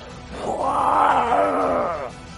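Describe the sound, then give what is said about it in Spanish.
A person's voice mimics a huge, drawn-out roar from the back of a temple, a low groaning growl that swells and holds for about two seconds before cutting off, loud with no other sounds. “Cuando decís esas palabras, podéis oír un rugido enorme del fondo del templo por...”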